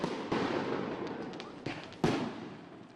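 Fireworks bursting in a loud, crackling sequence: sharp booms at irregular intervals, each followed by a rumbling, fizzing tail, with no voices present.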